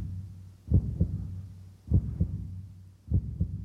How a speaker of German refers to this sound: Mir kommt es beinahe so vor, als kann ich diesen anderen Menschen spüren, als kann ich den Herzschlag hören.